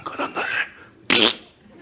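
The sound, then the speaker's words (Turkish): A man talks briefly, then a single loud, harsh fart noise, apparently blown with the mouth, bursts out for about a quarter second before fading into quiet. “Diyor ki bir daha bu osuran gelmesin.”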